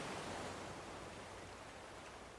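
A steady, dense wash of rushing water, like ocean surf or a flowing stream, fills the whole stretch at an even level with no voices and no distinct breaks.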